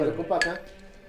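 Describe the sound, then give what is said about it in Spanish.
A single bright clink of glasses touching in a toast, with a short ringing tone that fades quickly, right after a burst of voices. “Salud.”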